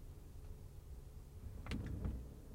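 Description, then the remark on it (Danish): A car rolls to a halt, a steady low engine and road rumble giving way to a couple of short mechanical clunks and squeaks near the end, with no one speaking. “stop bilen.”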